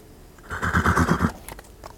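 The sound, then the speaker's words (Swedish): A horse gives a loud, quavering whinny lasting under a second, followed by a few sharp, scattered hoof clops as it fades. “Så, mycket riktigt, han stjäl en häst.”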